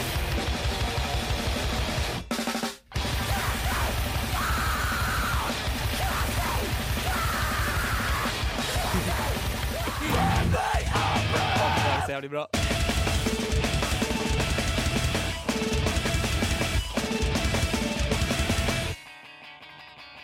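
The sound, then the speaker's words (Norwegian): A loud, dense mathcore track with harsh screamed vocals over pounding drums and distorted guitars, broken by abrupt stop-start gaps and jagged rhythmic shifts before fading near the end. “vi skal kjøre i, gang i dag med sjangeren mathcore.”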